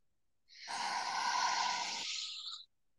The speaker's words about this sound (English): we all just closed our eyes and mm-hmm. just took a breath in together, breathing in through our nose for a moment